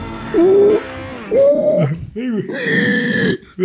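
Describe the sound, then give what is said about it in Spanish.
A man makes a few loud, drawn-out, gravelly vocal sounds, an attempted voice imitation that stretches into a groaning yawn. “Sí, me provoca un bostezo, güey.”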